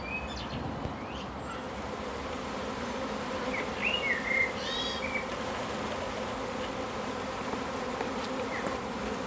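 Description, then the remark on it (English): A dense, steady drone of many bees buzzing, a continuous layered hum with a few brief high chirps from birds in the background, as a beekeeper tips a big Tupperware pot full of bees down into the hive; the bees are all over the hive and the lemongrass. No one speaks. “Wow, she's just tipped out a big Tupperware pot full of bees, just knocked them down into the hive.”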